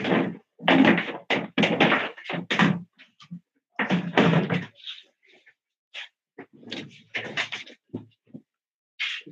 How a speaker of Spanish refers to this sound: Bueno, si quieren muevan la silla para que te dé el espacio.